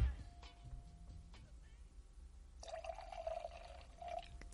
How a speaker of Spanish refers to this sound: ahora me he callado, como verás, porque quería que se oyera ese sonido del vino. Acércalo más al micro. A ver.